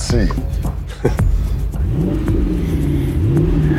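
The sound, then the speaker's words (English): A powerful hot rod police car engine revs loudly, its growl rising and falling in several sweeping surges over a steady rumbling idle. “You have never heard a police car sound like that anywhere”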